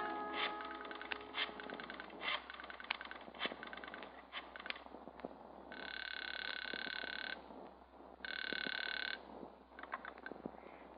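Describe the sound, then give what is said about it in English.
A telephone rings twice over a line, each burst a buzzy, steady trill, following a stretch of scattered clicks and tones. Thin, band-limited sound with no one speaking. “There's a one armed coffee joint across the way where you can telephone.”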